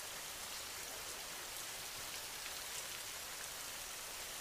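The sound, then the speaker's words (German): Steady rain falls continuously, a dense, even hiss of countless drops hitting the ground with no pauses or voices, soft and consistent throughout. “Jeder einzelne Regentropfen erzeugt ein Geräusch.”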